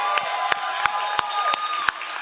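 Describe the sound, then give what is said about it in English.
An audience at a church service applauding Pastor Polo: a dense, steady wash of many hands clapping, with a few sharper claps standing out at regular intervals, sustained for the whole stretch without any talking. “Can we give Pastor Polo a big hand clap?”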